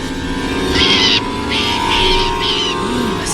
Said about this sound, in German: In Deckung, Vorsicht, der Vogel greift uns an. Auf den Boden.